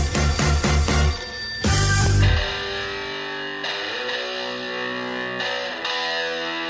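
A telephone rings in a quick run of trilling electronic pulses, then a loud burst gives way to a sustained, heavily processed musical tone that fades slowly. Loud, with no voices.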